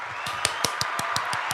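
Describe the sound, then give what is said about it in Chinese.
A short burst of hand clapping, about eight quick, evenly spaced claps in a steady rhythm, moderately loud over a constant hissy background hum, with no talking. “应该给自己一个掌声，”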